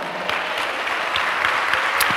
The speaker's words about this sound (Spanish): Dele un aplauso al Señor, los libres.